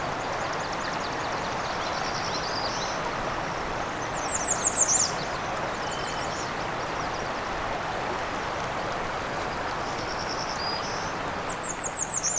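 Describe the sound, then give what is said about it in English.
A black-throated green warbler's alternate song: short, thin, high buzzy phrases that recur a few times, over a steady broad hiss of outdoor background noise. “alternate song for a black-throated green warbler.”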